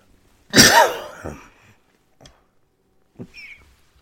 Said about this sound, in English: I can't seem to stop coughing.